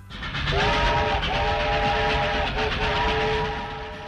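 A train rumbles loudly past on the tracks, its horn sounding in three long, steady blasts over the broad roar of the wheels and cars, with no voices.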